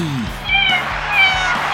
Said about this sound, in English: And now the star of Life with Bucky, her royal buckiness, the world's most amazing cat, Bucky.